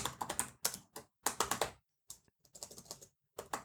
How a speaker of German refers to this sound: Tippen kann ich richtig gut. Ja, merke ich.